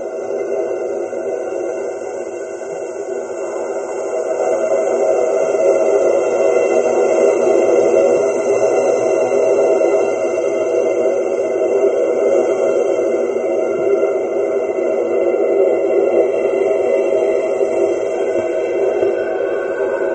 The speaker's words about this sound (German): Und jetzt, wenn wir jetzt das Luftgeräusch mit Mikrofonierung hören könnten, zum ja, Vergleich.